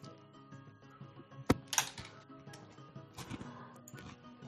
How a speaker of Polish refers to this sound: Kliknąłem, źle kliknąłem, ale niech będzie, chuj.